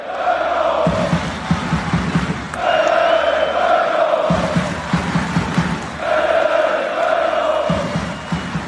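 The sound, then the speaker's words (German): A loud stadium crowd roars and cheers after a goalkeeper's save, with the score at 3-1, in steady, repeating surges, a dense wall of many voices rising and falling in a rough chant-like rhythm throughout. “So ungefähr klang das nach der einen unfassbar geilen Parade, als es noch 3-1 stand.”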